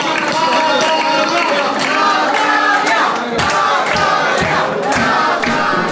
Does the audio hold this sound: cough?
no